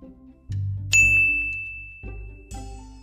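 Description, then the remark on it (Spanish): A small bell over the door of Olivander, a narrow wand shop, gives a single bright, clear ding as someone enters, ringing on and slowly fading, with soft low rumbling thuds underneath and no one talking. “Al entrar se escuchó una campanilla.”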